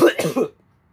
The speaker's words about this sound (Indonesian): by the way ini masih ya bisa dibilang gue kena inilah bukan batuk juga ya batuk lah tapi gak kena penyakit berat cuman batuk doang